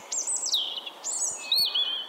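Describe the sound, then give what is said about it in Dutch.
A European robin sings a fluid run of high, warbling phrases with sliding whistles and trills, clear, with no voices. “Nu, er zijn ook eh, andere vogels, eh, zoals het roodborstje dat s'nachts zingt.”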